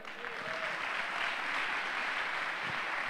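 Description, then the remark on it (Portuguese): An audience applauds for Jesus during a church sermon, steadily for a few seconds, a dense, sustained wash of many hands clapping at once, with a faint voice briefly rising above it near the start. “Alguém vai aplaudir Jesus, não vai?”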